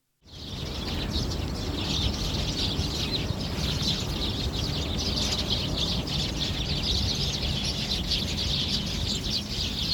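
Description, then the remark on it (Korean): A flock of sparrows gathered along a street in autumn chirps continuously and busily while eating bread, a dense overlapping chatter of high tweets that stays steady for the whole stretch, with no voices. “빵 먹는 참새 소리 들으면서 마무리하겠습니다”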